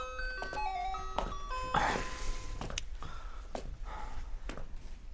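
A school class bell chime signalling the start of class plays a short melodic tune of sustained electronic tones for about two seconds, followed by scattered thumps and rustling noise at a moderate level.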